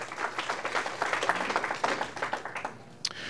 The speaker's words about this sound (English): The rules for tonight, the audience, please be courteous. Let's let that be all the applause you give as, after this opening here.